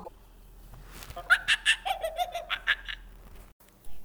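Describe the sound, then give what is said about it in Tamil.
A monkey gives a quick burst of high, chattering calls, about eight sharp rhythmic yelps in a row, clear against a quiet background with no talking. “இப்போ நாம் கேட்டது குரங்கு அலப்பும் ஓசை”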